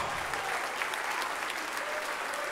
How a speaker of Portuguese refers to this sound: Vem para cá e vamos aplaudir o Senhor Jesus por cada vida.